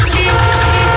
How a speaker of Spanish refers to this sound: Cuando se te gripa la moto en mitad de la calzada, suena así.